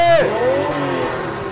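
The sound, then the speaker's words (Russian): A stationary race car's engine revs loudly in the paddock, hitting the rev limiter, its strained high whine dropping sharply and settling into a rough, buzzing drone that holds steady to the end; it has been revving for about ten minutes. “Вот он стоит, э, газует уже минут, наверное, 10.”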